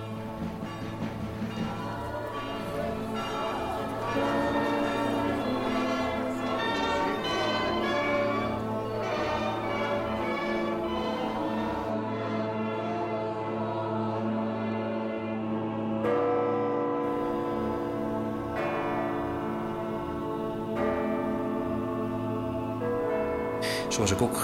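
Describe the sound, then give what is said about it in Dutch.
Church bells peal on and on without pause, their overlapping metallic strikes and ringing overtones blending into a dense, steady wash of sound that stays loud throughout. “gefascineerd ben door klokken. Onafgebroken klokken.”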